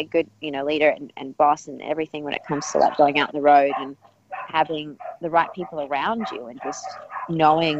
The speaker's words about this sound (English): oh you got a few dogs going on there yeah you can hear them in the background what the kind of dogs you got they're not mine actually it's my next door neighbors